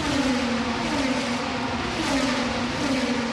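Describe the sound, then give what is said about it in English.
Continuous loud engine roar with shifting pitch as race cars rev and speed around the track at the Detroit Grand Prix, a dense steady wall of motor noise with no talking. “Joining us now at a very noisy Detroit Grand Prix, it's Sebastian Bourdais of AJ Foyt Racing.”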